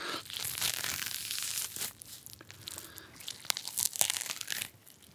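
Crisp tearing of a grapefruit peel, with fibrous ripping and crackling bursts over about five seconds and a few sharp snaps near the end. No voices.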